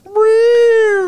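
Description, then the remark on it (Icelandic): A person's voice imitates their own cat's meow: one drawn-out, loud, whiny tone lasting about a second, its pitch rising slightly and then falling away, with no other sounds around it. “Voru þið búin að heyra köttin minn?”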